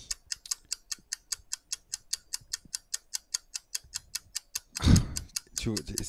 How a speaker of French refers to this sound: Euh, je vois que tu as dû relancer le tic-tac pour, pour être dans le deux fois.